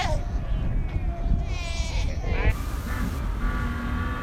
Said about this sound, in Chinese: 这是纳米比亚海豹的叫声。